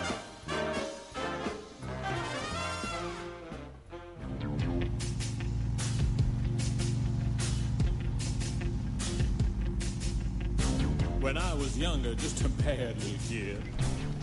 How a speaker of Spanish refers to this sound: Lo que acaban de escuchar es eh, una canción de la obra musical Avenida Q que se hizo mm, más o menos por allá por el 2009 en la Argentina.